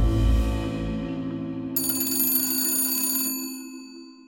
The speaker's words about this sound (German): New York, irgendwann um die Wende vom 19. zum 20. Jahrhundert. Im Hotel Waldorf Astoria klingelt das Telefon.